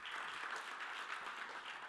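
Steady audience applause, a dense wash of many hands clapping at an even level throughout, with no voices standing out above it.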